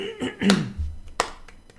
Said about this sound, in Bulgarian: Мога, мога само да ръкопляскам, да слоу клапна на това нещо.